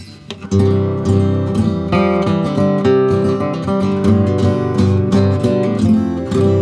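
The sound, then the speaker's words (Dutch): A new L-00-style acoustic guitar strummed steadily and fairly loudly, full ringing chords with regular rhythmic strokes sustained throughout, no voices. “Ook een uh, L00-achtige, maar dan nieuw. Ook een hele vette gitaar”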